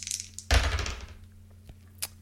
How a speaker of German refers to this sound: Äh, Moment, die Zehnerstelle ist 0 und dann ist es die 2. Oh, Passt dann schon. darf ich ja gar nicht würfeln. Na, du darfst Mann. schon, aber es gilt dann nicht mehr.